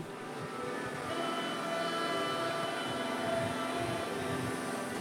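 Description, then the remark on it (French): Steady metro train ambience on a trip to Tourcoing near Lille, France: a continuous rumbling ride with rail noise and faint tonal whines, holding at an even, moderately loud level throughout with no voices. “Je me rends à Tourcoing près de Lille, alors je ne résiste pas à vous mettre les ambiances de mon métro préféré pour commencer cet épisode.”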